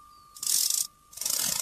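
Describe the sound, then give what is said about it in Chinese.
A mechanical kitchen timer, set for fifteen minutes while a cake bakes, rattles in two dense, buzzing bursts, each about half a second long, over a thin steady tone. There is no talking. “哦，是计时器。”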